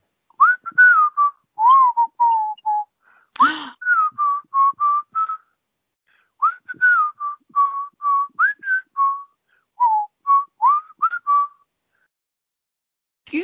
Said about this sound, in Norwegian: så flink du er til å plystre